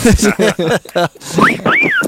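A person talks briefly, then whistles two short tones: a quick upward-sliding note followed by a longer wavering one that glides up and back down.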